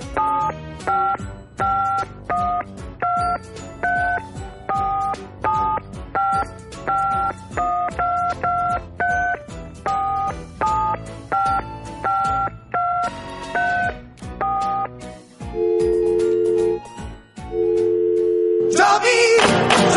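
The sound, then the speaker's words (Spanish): A rapid string of touch-tone beeps as a phone number is dialed to set up a call link from Spain, short evenly spaced dual-tone pulses, followed by a few longer ringback tones and then a burst of line noise. “tenemos en estos momentos un enlace que estamos haciendo desde España”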